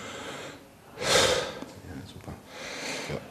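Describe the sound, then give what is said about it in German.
Slow, deep breaths drawn in and pushed out through an open mouth during a medical examination while the chest is listened to, two broad airy swells with a quiet pause between, fairly loud, with no talking over them. “Jetzt mal durch den offenen Mund mal bitte tief ein- und ausatmen.”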